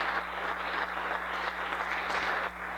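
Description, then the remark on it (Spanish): An audience applauds in a dense, steady wash of clapping that holds at an even level for about three seconds, with a faint low hum underneath and no voices. “bueno, ya deja de, aplaudir la gente finalmente.”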